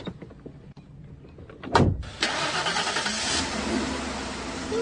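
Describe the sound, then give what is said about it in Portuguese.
A car door slams shut with a sharp thud as people get into the car, followed by an engine cranking and catching, then settling into a steady idle rumble. Faint footsteps and shuffling come before the slam. “Entrem no carro.”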